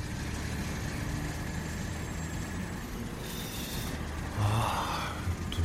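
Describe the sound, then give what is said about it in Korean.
A heavy truck loaded with boxes sets off on a delivery as snow begins to fall: its engine rumbles steadily at a low pitch, with a brief hiss like an air brake releasing midway and the engine swelling louder near the end as it pulls away. “나는 박스들을 트럭에 싣고 출발했다.”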